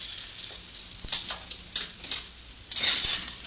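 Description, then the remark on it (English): Keys jingle and scrape against the lock of a car's rear compartment, with a series of light metallic clicks and rattles, then a busier burst of jangling as the lock gives way. Fairly quiet, no voices. “One of these keys unlocks this.”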